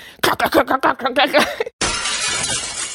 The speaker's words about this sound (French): Et j'avais cassé le miroir et j'avais l'épée dans la main.